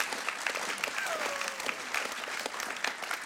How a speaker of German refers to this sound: Wir dürfen gerne Gott und dem Ref mal Applaus geben. So cool. Stark, hey.